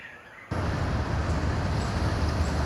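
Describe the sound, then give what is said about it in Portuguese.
After a brief moment of quiet, a steady, loud rumble of road noise cuts in abruptly and continues, like a ride-hailed car moving through city traffic toward Copacabana Beach, with no voices. “Ela abre o aplicativo, chama um carro. Destino: Praia de Copacabana.”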